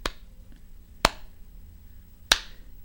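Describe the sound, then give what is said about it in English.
Three sharp, isolated hand claps from an audience ring out over near-silence after Ryan Seacrest announces which contestant is going home, spaced about a second apart with slow, hesitant timing. No one speaks. “that one clap from the audience, and then everyone slowly joined in and you knew that it was just utter shock”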